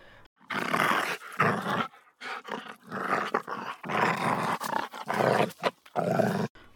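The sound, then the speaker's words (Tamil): A dog growls and snarls ferociously in a string of loud, harsh bursts with brief gaps between, attacking a man and tearing at his chest. No one speaks. “நாய் நெஞ்சில் குதறியது இடது கையால் நாயின் மூஞ்சியில் அடித்தார் வேல்கம்பை ஓங்கினார் வலது மணிக்கட்டை கவிக்கொண்டது”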